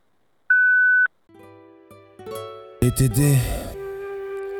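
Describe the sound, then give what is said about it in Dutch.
A steady, pure voicemail beep of the Lockdown voicemail holds for about half a second, then cuts off before a jumble of electronic tones and a loud burst of voices and noise. “Hallo, dit is de voicemail van Lockdown. Vlieg hem recht achter te laten naar de toon.”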